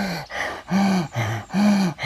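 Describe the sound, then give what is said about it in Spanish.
Heavy, rapid panting from a person out of breath after running, about five breaths in a steady in-and-out rhythm, each one loud and slightly voiced like a strained gasp, with no talking. “respirando agitadamente y al intentar leer se me cortaba la voz, no podía leer de corrido.”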